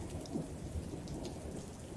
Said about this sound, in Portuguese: Acho que tá muito alto, talvez, a chuva? Não, acho que não, né? Enfim, eu não controlo a chuva, né? É Deus que controla isso.